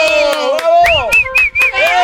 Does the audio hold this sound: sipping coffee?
no